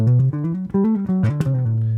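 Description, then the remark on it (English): A guitar plays a quick scale run of about seven notes with every note slurred, each gliding smoothly into the next with no picked attacks, stepping up and back down in a flowing, legato line, clear. “but on the other hand, if you slur every single one,”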